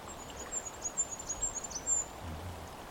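A firecrest gives a run of very high, thin, needle-like call notes in quick succession, fairly faint and overhead, against a soft background hiss of outdoor ambience.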